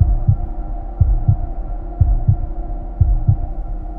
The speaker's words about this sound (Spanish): Permaneció tumbada durante un rato en el frío de la madrugada, con la mirada perdida en el techo, mientras una sensación de miedo la invadía poco a poco, empezando por un malestar en el vientre y culminando en un fuerte latido en el pecho.